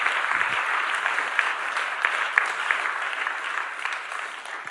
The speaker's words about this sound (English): Let's give a round of applause for being the first one.